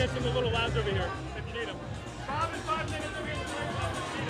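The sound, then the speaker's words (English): A dense babble of many overlapping voices fills an echoey baseball clubhouse in San Diego, loud and continuous, with shouts and laughter rising from a crowded celebration. “Sounds like the party is uh, continuing to roll down in the clubhouse.”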